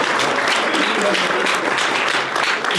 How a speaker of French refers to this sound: Voilà, on applaudit bien fort.